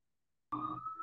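After a moment of silence, a loud emergency siren abruptly cuts in with a steady, piercing wail in New York City, continuing without any voices.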